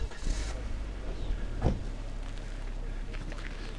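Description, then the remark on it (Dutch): Steady wind blows across the wide open heathland of the Ginkelse Heide near Ede, a constant low rumble and airy hiss with slight gusting, unbroken throughout. “Winderig en een grote vlakte, daar kijk ik over uit.”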